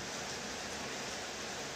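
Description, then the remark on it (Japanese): Steady, even hiss of rain falling, soft and continuous with no breaks or distinct drops, at a fairly low level with no voices present. “でも今日はこんな雨音を聞きながら寝れると思ったらなんかそれだけで幸せな気持ちですやっぱり水の音が聞こえるね雨音がこうやって聞こえるだけでも”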